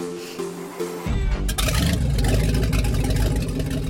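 A motorboat engine starts up after a brief quieter moment, then roars steadily and loudly with a rough, churning drone and splashing water noise, as the boat ferries loads back and forth to an island during an early-summer move to the countryside.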